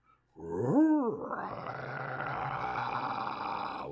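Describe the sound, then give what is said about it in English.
A single drawn-out growling groan swells up and sinks back down, loud, then gives way to a steady, hissing rumble that lingers to the end. It is heard off in the distance. No one speaks. “was it a growling?”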